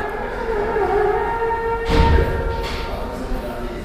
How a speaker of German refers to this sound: Der Ruf des Muezzins Wohl einer der typischsten Ohrenblicke meiner Tunesienreise von 2001. Jeder Muezzin hat seinen eigenen Sound und seinen eigenen Gesangsstil.